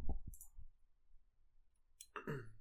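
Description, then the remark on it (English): A chair creaks and clicks: a few soft thumps and sharp clicks, then a brief quiet stretch before a louder, squeaky creak near the end. No one speaks. “Oh, yeah, it's that fucking chair, man. You can hear that fucking chair, man.”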